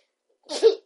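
A single short sneeze bursts out close to the microphone, a breathy hiss followed by a sharp voiced snap, then silence.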